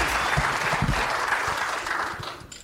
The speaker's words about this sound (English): Clap one more time for him.